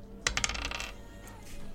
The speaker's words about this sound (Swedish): Vi ska slå en tärning här och se vilket ämne det blir.